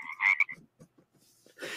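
Several frogs croak in quick overlapping bursts, a bright chirpy chorus followed by softer, scattered calls and a brief noisy swell at the end.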